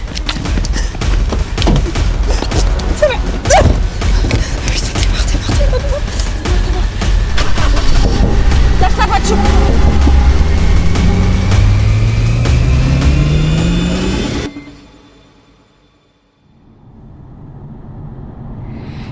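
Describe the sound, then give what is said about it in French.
A car engine roars, its pitch climbing steadily as it accelerates for several seconds amid rattling thumps, then cuts off abruptly into a quiet hiss, as the car drives away. “J'ai roulé pendant des kilomètres n'osant même pas regarder dans mon rétro.”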